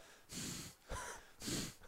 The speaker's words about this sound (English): do you have a twitch? No, I bl- I blow m- out with my nose all the time.